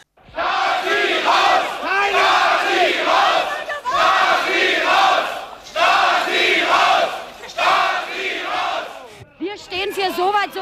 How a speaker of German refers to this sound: Nach der Stürmung der Stasi-Gebäude in Erfurt, Leipzig, Suhl und Rostock ist am 15. Januar 1990 auch die Zentrale in Ostberlin dran. Es ist der Höhepunkt der Proteste. Wütende Bürgerinnen und Bürger stürmen die Zentrale in der Normannenstraße.